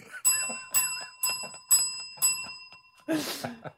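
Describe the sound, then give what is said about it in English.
A small bell is dinged five times in quick, even succession, each bright ring lingering into the next, followed by a brief burst of a voice at the end. “I know you've dinged the dinger before we cancel it.”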